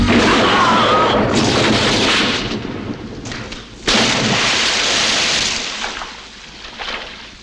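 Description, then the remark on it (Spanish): Loud, sustained bursts of gunfire from a Colt AR-15 rifle fitted with two 30-round magazines taped together, in a film scene with Tony Montana, roar almost continuously, broken by a couple of sharp booming onsets, then taper off toward the end amid crashing, rumbling noise. “Eh, el arma que se utilizó eh, en la película fue un Col ar 15 que le habían puesto dos cargadores de 30 balas unidos entre sí por cinta adhesiva para que fuera más fácil de recargar.”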